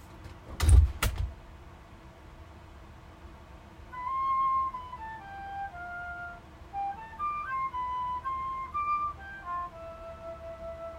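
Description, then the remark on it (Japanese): A heavy soundproof room door swings shut with a single solid thud, recorded from outside the room to test whether sound leaks out, followed by several seconds of quiet, with a faint, muffled melody playing on behind it. “はい外にセットしましたドア閉めます”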